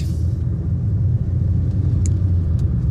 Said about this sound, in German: ich überhole jetzt erstmal hier dieses Landwirtschaftsfahrzeug.